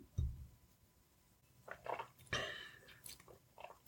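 Someone takes a sip of white wine: a low thump, then a few short wet slurping and swallowing noises in quick succession, fairly quiet, with no talking.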